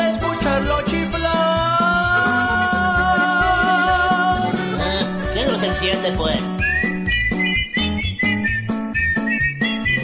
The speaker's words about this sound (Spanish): Dicen que el jefe en la oficina mandó llamar al hombre, lo vino a regañar. No puede estar chiflando todo el día en la oficina, ya he recibido muchas quejas